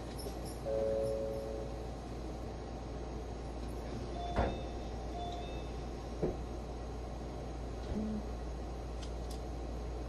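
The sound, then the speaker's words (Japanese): Doors of the Limited Express Hida No. 1 train bound for Takayama slide shut with a few sharp thuds and clunks over a steady, low rumbling hum from the idling train. Nobody speaks. “ドアを閉めます。ご注意ください。”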